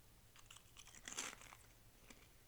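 Crisp crunching of a dill pickle tortilla chip being chewed, a quick run of brittle cracks peaking midway, then a final crunch, fairly quiet with no talking.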